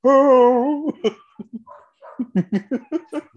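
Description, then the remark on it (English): A dog lets out a drawn-out, wavering whimper, followed by a string of short, choppy bursts that could be yips or laughter, with no talking. “see, even the dog.”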